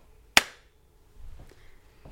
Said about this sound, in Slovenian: Klapa.